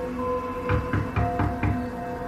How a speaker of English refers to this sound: I couldn't tell if it was the front or the back door, but I had a good idea that it was the back. I left the bathroom and poked my head out of the bedroom door. My skin tingled, and goosebumps raised up as the knocking started again.